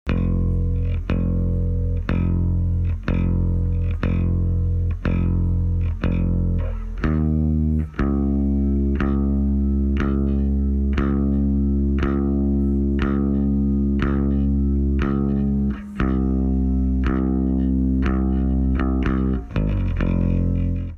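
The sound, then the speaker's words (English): A solo bass guitar plays a very simple part alone, with steady repeated plucked low notes for the first seven seconds, then long sustained held notes that shift pitch a few times. “The bass part couldn't be more simple. It doesn't sound like much on its own.”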